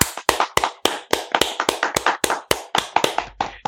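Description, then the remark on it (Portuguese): Steady hand clapping as a round of applause for a news coverage team, about fourteen sharp, crisp claps in an even rhythm of roughly three to four per second, with no voices over it. Sounds like one or a few people applauding. “Queria inclusive puxar uma salva de palmas aqui para todos nós que fizemos essa cobertura aqui.”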